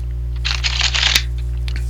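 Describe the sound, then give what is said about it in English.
Papery rustling and soft slapping of playing cards being laid down on a table, a quick flurry lasting about a second with one sharper snap, over a steady low hum. “Okay, so I will lay down my cards.”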